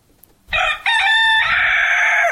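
A loud cockerel crows once in a sound effect, a harmonic cock-a-doodle-doo with a brief break before a long, sustained final note that trails off, with no talking.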